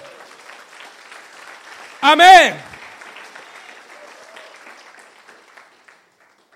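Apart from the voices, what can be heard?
audience applause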